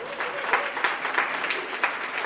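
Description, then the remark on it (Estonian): An audience at an evening event applauds Kaspar Korjus, head of Estonia's e-residency project, a dense wash of clapping hands with sharper claps popping out now and then, sustained at an even level with no voices over it. “meie ees siin äh, laivis on äh, Kaspar Korjus, teeme Kasparile ühe hästi-hästi-hästi suure aplausi.”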